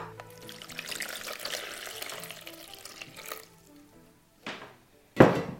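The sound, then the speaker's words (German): Water pours steadily into a container for a few seconds with a bubbling splash, then stops, followed by two short, louder splashes or sloshes near the end, as a little water is added to build a model of Antarctica. “Dafür nehmen wir auch ein bisschen Wasser.”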